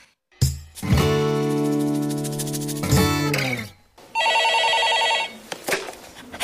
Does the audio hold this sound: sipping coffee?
no